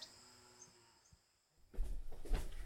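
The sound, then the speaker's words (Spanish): Quiet outdoor ambience with faint insect chirping, then a heavy door emblazoned with iron is pushed open as people walk through into a house, with a loud creaking and clattering rumble that fills the last second. “Definitivamente, el tiempo se ha detenido aquí, junto al hierro que blasona la puerta que ahora franqueamos.”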